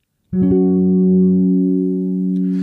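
A loud gong chime strikes once and rings on as a steady, sustained tone, holding at nearly full strength without fading, with no voices.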